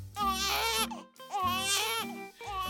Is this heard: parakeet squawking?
no